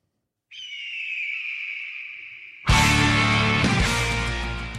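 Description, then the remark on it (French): A single drawn-out, high-pitched eagle screech from the video game Broforce rings out for about two seconds, then gets cut off by a sudden loud, full burst of music that keeps going. “Vous n'avez pas reconnu l'aigle de.”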